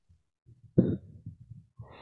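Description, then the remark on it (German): One sharp cough bursts out after a moment of quiet, then trails into soft breathy rumbles and throat noises. No one speaks. “Entschuldigung, muss mal kurz husten.”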